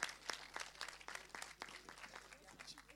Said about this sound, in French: On les applaudit. Hein. Bravo.